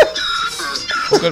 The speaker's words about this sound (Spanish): digo, el burro también está como triste ahí. O es riéndose, es riéndose, le están dando.